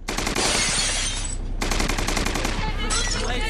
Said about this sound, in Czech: Ty vole! Oni po nás střílí.